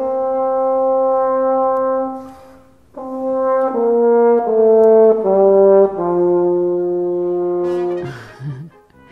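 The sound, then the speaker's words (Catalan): A French horn, played with a French horn mouthpiece fitted to the instrument, plays a long held note, pauses, then moves through a series of sustained notes stepping downward, full and loud, ending with a brief breathy blat. “Si això li col·loques a l'instrument, en aquest cas a la trompa, que això és un broquet de trompa, eh, la trompa és l'instrument d'este circular que apareix en el símbol de correus, la cosa ja canvia i sonaria d'esta forma.”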